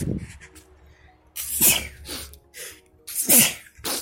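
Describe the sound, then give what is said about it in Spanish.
Two loud, sharp sneezes in quick succession from a person with a slight cold, each a sudden burst with a breathy tail, separated by a short pause of quiet breathing. “Perdón, estoy un poco resfriado.”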